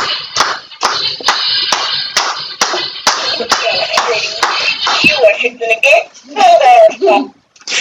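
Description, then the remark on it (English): A steady beat of hand claps, about two per second, repeats for several seconds before trailing off, while voices cheer and shout over it. “I love when I start doing the clapping.”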